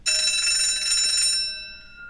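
A bright courtroom bell rings loud in one steady, continuous burst for over a second, announcing the entrance of the court at a trial, then its metallic tone fades away. No one speaks.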